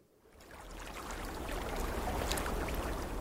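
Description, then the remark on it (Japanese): Steady rushing water out at sea, a broad wash that swells up over the first second and holds, with a deep low rumble underneath, as if heard from aboard a boat. No voices. “これは海の上のちょっと波の音なんですけど”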